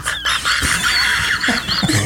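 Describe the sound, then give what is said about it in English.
A person growls and roars loudly in imitation of a big cat, a rough, strained cry lasting about two seconds with rising and falling pitch, unbroken, with no talking. “he had the roar of six cats.”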